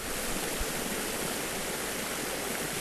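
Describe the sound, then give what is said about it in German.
Mine water pumped to the surface around the clock, about 18 million cubic metres a year, pours steadily through open channels at the water gardens in Reden, Saarland, Germany. A continuous, even rush of flowing water with no voices and no change in intensity throughout. “Die Wassergärten in Reden. Hier wird das besagte speziell saarländische Problem sichtbar. Die RAG pumpt hier rund um die Uhr Grubenwasser über Tage im Jahr rund 18 Millionen Kubikmeter.”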